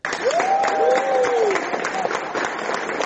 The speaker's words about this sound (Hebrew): אמרתי, תגידו לי מזל טוב. לא צריך למחוא כפיים,